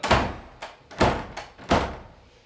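A door is banged repeatedly: three heavy, booming thuds about a second apart, with lighter knocks in between, each hit ringing out briefly. No one speaks.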